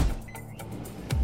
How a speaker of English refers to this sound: But what about that sound? You're listening to a set of GE appliances, complete with all you need to keep food fresh, dishes clean, and everything else stress free, making this the sound of savings on top brand appliances.